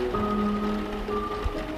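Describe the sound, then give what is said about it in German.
Steady, dense pattering against a window pane at night, like rain drumming but not the rain itself, while it pours outside, continuous, with sustained low humming tones underneath. “Das Prasseln gegen die Scheibe hört sich nicht richtig an.”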